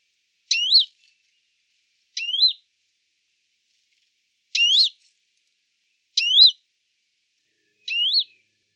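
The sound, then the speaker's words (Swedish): Western Bonelli's warbler giving five short, upslurred whistled calls, each a quick rising note, spaced about two seconds apart, clear against a silent background. “Först där eh, bergsångare och därefter balkansångare.”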